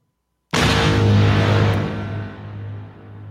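A beer bottle cap is pried off a large caguama beer bottle with a bottle opener and pops off sharply, followed by a loud rush of fizzing hiss that lingers for a few seconds before gradually easing. No one speaks.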